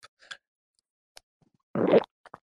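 A loud throat gulp, a short thick swallowing burst, framed by a few faint wet clicks before and after. No one speaks.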